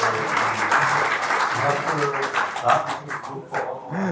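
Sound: clapping in the background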